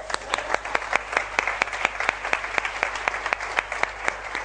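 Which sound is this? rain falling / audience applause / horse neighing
audience applause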